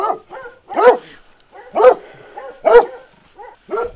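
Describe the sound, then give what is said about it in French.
A dog at a shepherds' sheepfold on a mountain plateau with pastures, at over 1700 metres altitude, barks in a steady rhythm: three loud, full barks spaced about a second apart, with softer, shorter yaps and whines in between. No one speaks. “Alors, j'ai cherchais un peu sur le plateau, j'étais dans la bergerie, il y avait juste un chien, il y a un petit parc à côté avec quelques moutons.”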